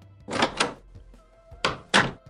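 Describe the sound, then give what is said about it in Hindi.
A door being opened at eight at night after the doorbell rang, heard as two pairs of short, rustling bursts with a brief pause between them, over a quiet background with no talking. “और जैसे ही उसने दरवाज़ा खोला”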